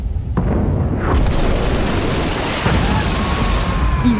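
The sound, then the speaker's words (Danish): Heavy artillery fire from the Danish and Prussian bombardment of the redoubts in the days up to 18 April booms out, a sharp blast followed by a dense, continuous low rumble of cannon explosions that rolls on loudly for several seconds. “april, der bliver det jo hæftigere og hæftigere øh, med det her øh, bombardement.”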